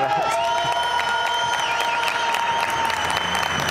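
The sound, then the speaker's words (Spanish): A crowd of young people cheers and shouts steadily over continuous applause as Governor Diego Sinue arrives, with several high whistles and yells rising above the loud, dense clapping. “Mire, gobernador, la verdad es que así son de gritones estos muchachos.”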